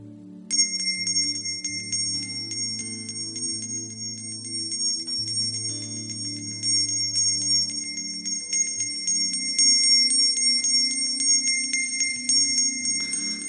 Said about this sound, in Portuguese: Eu não tenho sino daquele navio. Mas eu trouxe um outro sino. e Eu queria que vocês hoje ouvissem o som do chamado de Deus para dedicar a vida como oferta de louvor ao Senhor.